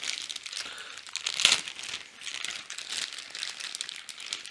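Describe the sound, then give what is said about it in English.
Packaging crinkling and rustling continuously as it's opened, a dense, crackly plastic texture with one sharper crunch about a second and a half in; no voices. “So let's let's get this thing open. That was pretty easy.”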